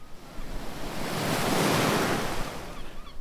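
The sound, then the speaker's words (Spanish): A broad wash of ocean surf swells up and crashes, building to a loud roar mid-clip before easing back, with steady hiss and no voices. “Los pobres náufragos, juguetes de las olas, más allá de los acantilados y de los arrecifes, se aterían de frío agarrados a sus tablones.”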